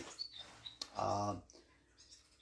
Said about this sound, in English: I have three dogs and I've got some birds probably in the background. So if you hear any barking or any birds tweeting, or whatever the case might be, uh, you'll probably know.